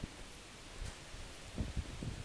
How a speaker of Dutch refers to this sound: Hoor je het gesuis van de bomen? Het staan die hele hoge bomen. En die vangen veel wind. En het ruist net als de zee. En het grappige is, ik voel hier nauwelijks wind, maar die bomen die vangen het op. En die hoor ik.